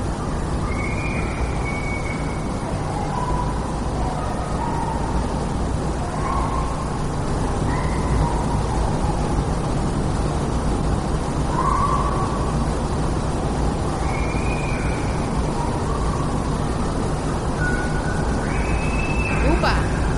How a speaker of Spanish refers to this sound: se oyen unos gritos muy agudos.